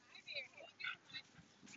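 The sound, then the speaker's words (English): A dog, one of a woman's two dogs, whimpers and yips in a quick series of short, high-pitched whines, fairly faint, with a low murmur of background noise underneath. “she's got a couple of dogs”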